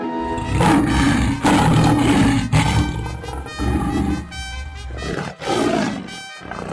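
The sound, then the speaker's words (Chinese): A lion roars repeatedly in loud, deep, rumbling bursts, the growls surging and fading in several waves over a few seconds with no one speaking. “他正走在路上，忽然从草丛里跳出一只健壮的狮子，对着参孙就扑上去。狮子张着血盆大口要吃参孙。”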